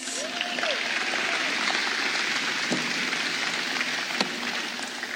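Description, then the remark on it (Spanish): A crowd claps for a group of girls in a dense, continuous patter of applause that holds at an even loudness throughout, with a few faint voices and a brief tonal sound in the mix. “Denles un aplauso a esas chicas.”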